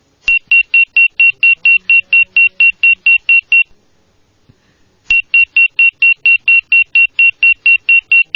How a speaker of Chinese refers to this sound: 呼机响了啊